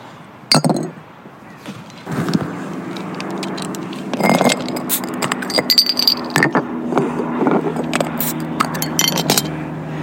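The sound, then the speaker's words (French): Glasses and a small corkscrew being unpacked, with several sharp glassy clinks and rattling knocks scattered irregularly amid handling noise, over a low steady hum and no talking. “J'ai même pris un petit tire-bouchon. Attends, que je sorte tout ça.”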